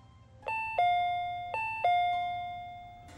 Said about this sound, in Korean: 어, 누구세요? 귀찮지만 물어봤다. 다섯 번이나 초인종을 눌렀으면 분명 우리 집에 용무가 있는 사람일 터.